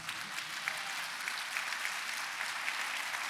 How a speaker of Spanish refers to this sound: Dele un aplauso a Jesucristo.